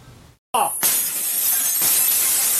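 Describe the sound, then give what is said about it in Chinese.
A sudden loud smash as police break a glass door during a raid on a drug-making factory in the mountains of Kaohsiung, Taiwan. It is followed by a long burst of shattering and tinkling shards that sustains bright and noisy for about two seconds after a brief silence. “关键是前好装备，将玻璃门甲攻破，成功入去到内底。”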